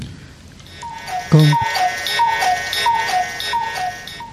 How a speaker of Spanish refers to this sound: Gracias, pajarito cucú.